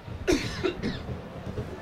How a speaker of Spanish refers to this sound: ¿Quién tose por ahí? ¿Quién tose por ahí?